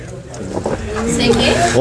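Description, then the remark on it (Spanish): A car drives through deep water on a flooded street, its engine rumbling under a steady rushing splash that builds toward the end, while people talk over it. “se inundó la calle. ¿Nadie tiene su auto estacionado aquí?”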